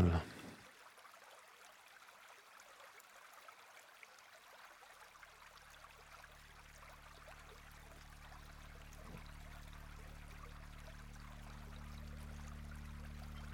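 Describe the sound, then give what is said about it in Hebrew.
A recording of a babbling stream, played as a nature sound, flows steadily, a continuous soft wash of trickling water, with a low droning hum gradually swelling underneath after the first few seconds. “שים לנו ככה, אני אוהב, נורא אוהב לנגן על הרב ככה עם צילים של נחל.”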